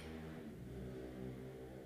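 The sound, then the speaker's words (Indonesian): A motorcycle engine hums steadily outside at about 12:40 at night, its low droning pitch shifting slightly as it passes, faint and continuous with no voices. “aduh ada suara motor lagi”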